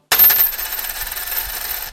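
A coin drops onto a writing desk in an apartment, striking with a bright metallic clink, then keeps ringing and rattling as it settles over about two seconds. Fairly loud, with no voices.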